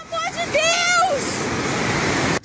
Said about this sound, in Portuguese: Novas cenas não param de surgir, dando a dimensão da tragédia em Petrópolis. Registros feitos com o celular mostram dois ônibus tombados e sendo engolidos pelo alagamento.